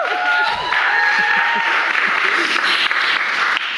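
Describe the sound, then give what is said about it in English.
A crowd at a Yale talk with author Leah Penniman, founding co-executive director of Soul Fire Farm, applauds steadily, dense overlapping claps forming a loud, continuous wash of noise, with a few scattered cheers and whoops rising over it early on. “we are really, really happy that you could make it out to tonight's talk with Leah Penniman, founding co executive director of Soul Fire Farm and author of Farming While Black as tonight's, yes, round of applause for that.”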